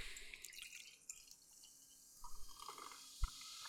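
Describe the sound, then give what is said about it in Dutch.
The rest of a drink is poured into a glass, with soft trickling and dripping, a brief gurgling burst midway and a sharp clink near the end. No one speaks. “De rest schiet ik weer even in een glas.”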